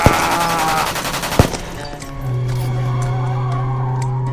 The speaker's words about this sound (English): The car squealed to a stop and turned around. He was coming back to try again. Once again blinded, I grabbed the gun from the corpse next to me and fired wildly. I heard bullets piercing the windshield